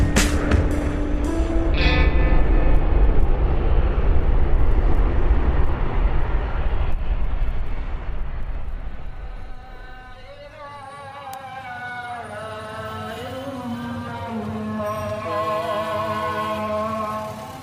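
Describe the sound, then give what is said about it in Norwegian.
A steady, low engine hum of a river boat carrying hundreds of people drones throughout, loud, with a rumbling mechanical drive underneath and faint voices and harmonic tones drifting in during the latter half. “Jeg hører brumming. Um... Det er altså fordi vi er på en båt. En, en slags elvebåt.”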